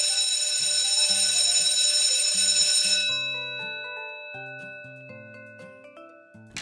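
A loud electric school bell rings continuously for about three seconds, then a series of clear chime tones plays in a stepping melody that fades out, signalling students to go to class. No one speaks.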